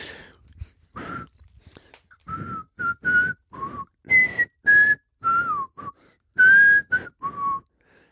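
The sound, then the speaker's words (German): A person whistles a tune alone, a string of short, clear notes that rise and fall in pitch with brief gaps between them, fairly loud. “Ich, ich pfeife mal nochmal.”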